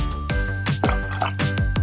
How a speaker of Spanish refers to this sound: Vamos a poner todos nuestros ingredientes en nuestro shaker para después hacer un frappe con hielo